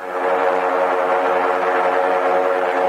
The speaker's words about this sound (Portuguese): Agora o capitão Carlos Bolonini está acelerando um pouco os motores. Com comando é, é... podemos. Agora a gente vai fazer uma pequena brincadeira, segundo o piloto Carlos Bolonini. ativa os motores, as duas hélices, uma de cada lado do blimp.